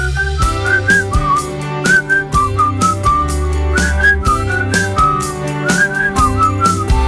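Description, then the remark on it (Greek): A clear whistled melody, whistled by radio hosts as a farewell, rises and falls over a steady full-band music backing, the tune recurring in short phrases throughout, loud and up front with no talking. “Εμείς αποχαιρετάμε εδώ όλοι μας ε, του Rock Radio το Νοέμβριο σφυρίζοντας”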